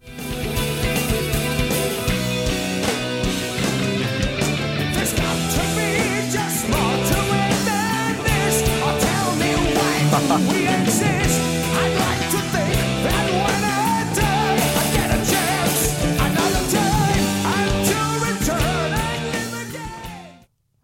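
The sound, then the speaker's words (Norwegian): A loud, dense heavy metal song plays for about twenty seconds, with distorted guitars and pounding drums under a singer who climbs to a sustained high note before the track cuts off. “Den tonen han treffer der, ah, ja. har jo vært en sånn sinnssyk frysning på ryggen-punkt for meg i den låta.”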